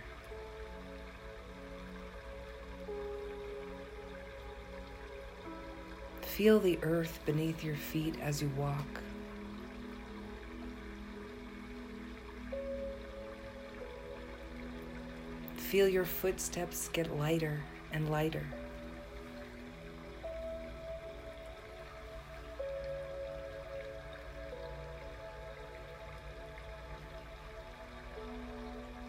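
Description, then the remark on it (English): A soft, steady trickle of a forest stream's running water flows beneath a calm voice speaking slowly, with faint tones in the background and two brief louder bursts of sound. “Follow the sound of the running water.”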